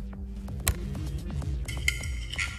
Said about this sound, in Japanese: じゃあビール開けようかな。